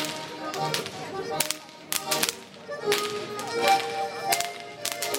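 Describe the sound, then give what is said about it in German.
Traditional Bavarian Goaßl whip cracking by whip crackers standing on tables among beer mugs and pretzels at the Hallertau hop pickers' day in the baroque courtyard of Scheyern Benedictine Abbey: a rapid series of sharp, loud cracks in uneven clusters, each a bright snapping burst, over busy festive noise. “Wenn die Gorselschnalzer beim Hallertauer Hopfenzupferjahrtag im barocken Wirtschaftshof der Benediktinerabtei Scheiern auf die Tische steigen, mitten hinein zwischen Maßkrüge, Brezen”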